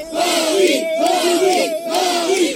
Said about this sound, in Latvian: Daži strādnieki toreiz izsvilpa Makrona un skandēja atbalsta saukļus Lepēnai.